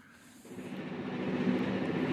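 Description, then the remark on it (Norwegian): A steady, rumbling train on the rails during a four-day train journey to climate negotiations, its broad mechanical roar building slightly in loudness over a couple of seconds, with no voices present. “den frivillige organisasjonen Spire, har reist med tog i fire døgn for å slippe ut minst mulig CO2.”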